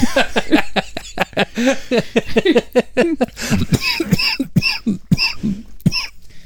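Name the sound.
throat clearing and coughing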